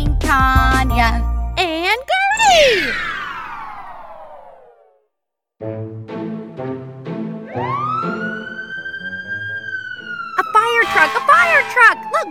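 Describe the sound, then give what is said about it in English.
A fire truck siren wails loudly, sweeping down in pitch, then rising again into a long held tone, with bursts of other noise and sound between the wails. “a fire truck.”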